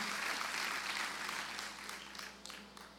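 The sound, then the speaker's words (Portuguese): An audience applauds in praise of the Lord Jesus Christ, a dense wash of many hands clapping that starts strong and gradually thins and fades, with a few sharper individual claps standing out near the end. “Oh, aplaude o Senhor Jesus Cristo e a, e a, e a palavra de bênção da minha mãe.”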